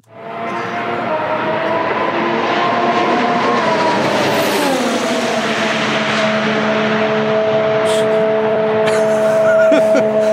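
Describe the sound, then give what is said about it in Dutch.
A Formula 1 race car engine whines loudly and continuously, its strong tonal pitch dropping partway through before holding steady at a lower note, with no one talking. “nee, dit was eh, geluid van de Formule 1 volgens mij.”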